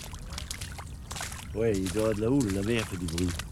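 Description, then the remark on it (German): Sea water sloshing and washing in a steady rush, with a voice coming in halfway through and sounding over the continuing swash. “Es ist sicher Seegang. Man hört das Meer.”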